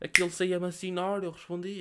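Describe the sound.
A single sharp finger snap cracks out right at the start, followed by a man talking steadily in Portuguese.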